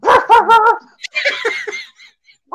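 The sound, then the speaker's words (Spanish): A voice imitates dogs barking: three loud woofs in quick succession, then a run of higher, yappier yips that fade out. “En esos vienen los perros para quererse comer a los pollitos, los perros.”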